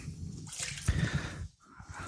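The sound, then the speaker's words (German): About 50 milliliters of water pours steadily into a cooking pot for about a second and a half, a splashing gush with bright hiss, then stops abruptly, leaving faint rustling. “So, und dann kommen noch mal ungefähr 50 Milliliter Wasser dazu.”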